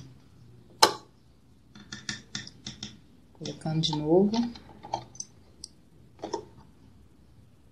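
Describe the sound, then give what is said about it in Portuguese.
A sharp metallic click rings out near the start as a small metal pin is pushed upward and clicks into place inside an opening, followed by a few softer clicks and scraping handling sounds as a man speaks briefly. “E aí, esse, esse, esse pininho aqui para cima, ele tem que estar tá encaixado ali. E aí, dá um clique.”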